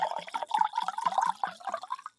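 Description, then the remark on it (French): Someone mimics wine glugging into a glass with their mouth: a quick, steady run of hollow, bubbly gulps, about five per second, fairly loud and with no talking. “Ah, fais-moi Fais-moi le bruit du verre qui coule dans le.”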